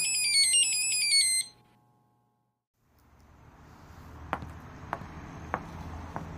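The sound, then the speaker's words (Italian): Nico's mobile phone, lying on the desk, plays a loud, bright melodic ringtone for about a second and a half, then cuts off abruptly, leaving quiet background noise with a few sharp clicks. “È il cellulare di Nico.”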